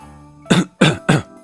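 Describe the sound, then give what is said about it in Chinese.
A person clears their throat in three short, raspy bursts, evenly spaced about a third of a second apart, fairly loud, with no talking around them. “佩德罗清了清嗓子，向人问路”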